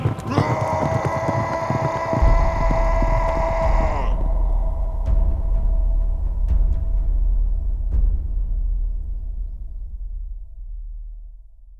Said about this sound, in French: Il fonce droit sur l'ennemi. Le cri de guerre qu'il pousse alors résonne à travers la plaine.